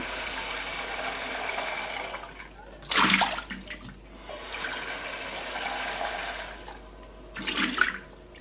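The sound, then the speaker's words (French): Water runs steadily into a saucepan being filled to boil vermicelli, with a rushing, splashing hiss, swelling into two brief louder gushes along the way. No voices. “Il prend le vermicelle, une casserole au mur, y met de l'eau et la fait bouillir.”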